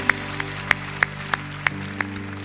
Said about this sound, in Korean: 약속을 지키시는 신실하신 하나님 우리의 생명의 왕 되신 주님께 영광의 박수를 올려드리겠습니다 할렐루야 주님 영광을 받으십시오